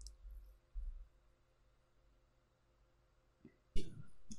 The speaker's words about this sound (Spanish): Lo siento por el sonido del teclado, pero es que mm, si no. La redacción, la redacción, sonidos de la redacción.